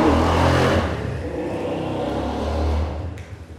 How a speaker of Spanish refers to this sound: Paciencia. y es el vecino que anda calando las motos que ojalá que se le punche.